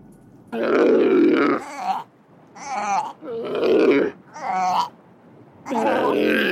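A seal calls in a series of loud, guttural grunts and moaning barks, five bursts with short pauses between them, clear with no talking.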